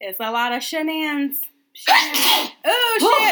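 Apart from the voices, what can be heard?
sneeze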